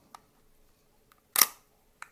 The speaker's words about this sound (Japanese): ライカのシャッターっていうのは布なんですけどあのー、ちょっと柔らかいシャッターの音がほらあのシャッターの音全然違うじゃないですかライカと、えー、ニコンでしたね